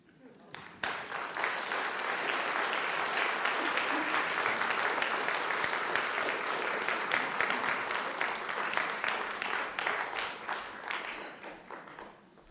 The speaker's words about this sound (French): Eh bien voilà, des applaudissements bien mérités.